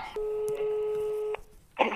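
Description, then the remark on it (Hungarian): A single steady electronic phone beep, a pure mid-pitched tone holding for over a second before cutting off abruptly, with a burst of voice right after. The phone beeps during a call because another incoming call has come in. “Jó, nem, csak én nekem csipogott közben a telefonom, mintha megszakadt volna a vonal.”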